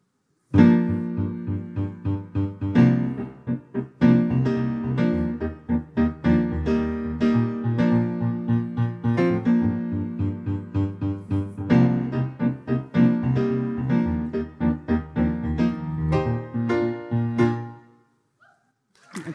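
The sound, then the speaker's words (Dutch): A pop song, the first of two versions of the same song, plays loud with a steady, driving beat and dense layered instruments for about seventeen seconds, then cuts off abruptly into a brief silence. “Hans die heeft voor ons twee versies van een nummer … voorbereid”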